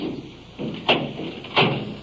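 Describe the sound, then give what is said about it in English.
A door opens with two short clunks about a second apart as a woman enters in the custody of an officer, over a low steady room hum with no talking. “you've heard both witnesses state that this man had threatened to kill the woman but entering the door now is the irony of this case.”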